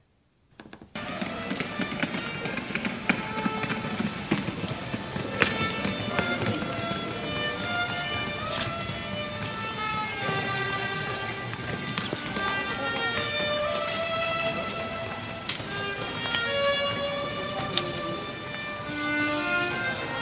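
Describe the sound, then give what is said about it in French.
A stroller's wheels roll steadily over a pebble-paved street surface, a continuous rattling rumble, mixed with a violinist playing in the street whose high, shifting, wavering tune rides on top. “une poussette sur l'espèce de revêtement en galet. Ça fait tout qu'un bruit”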